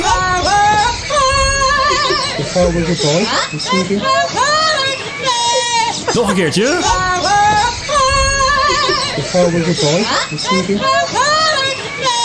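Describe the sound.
A parrot in a viral Instagram video mimics a pop singer, its warbly, sliding vocal melody sung in loud, continuous bursts with dense harmonic swoops, dominating, with a brief spoken phrase at the start.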